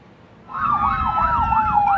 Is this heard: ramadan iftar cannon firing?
no